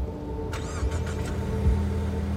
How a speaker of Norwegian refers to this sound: Så satte han seg inn i bilen sammen med politiet, og så svingte de ut på vinterføret.